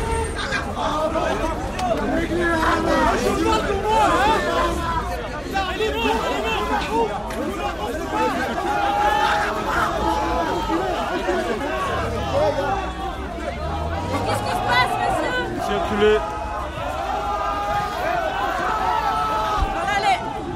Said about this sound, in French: qu'on entend, c'est le son des manifestants égyptiens qui ont été bloqués et encerclés par les CRS.